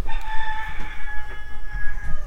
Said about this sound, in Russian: Простите за петухов, ребят.